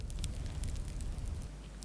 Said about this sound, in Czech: Z úst salamandrových vyletěl dlouhý plamený hvist. Zahučel v komíně a hned na to začali poskakovat čtyři pestrobarevní tovaryši ve vysokošlehajícím ohni.